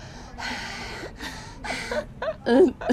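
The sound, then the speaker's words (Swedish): A voice imitates the loud, heavy panting of someone standing outside a bedroom door at night: several rough, breathy gasps in a quick irregular rhythm, ending in a few voiced, strained breaths. “och jag hör så här flåsande, alltså någon som andas så här högt.”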